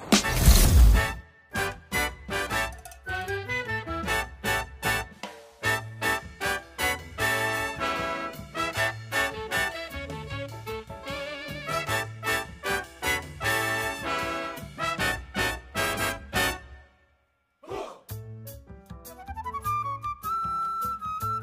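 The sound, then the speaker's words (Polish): A bouncy, upbeat video game music track plays on its own, with punchy rhythmic chords and a bright melody, briefly dropping out near the end before resuming with a rising synth line. “Ależ to są przyjemne dźwięki. E, Mambo de Chocobo”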